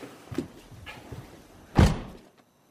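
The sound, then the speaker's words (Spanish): A man seated in the driver's seat shuts the car door with a single solid thunk that rings out briefly, preceded by a few faint handling bumps, otherwise quiet. “¿Podría cerrar la puerta?”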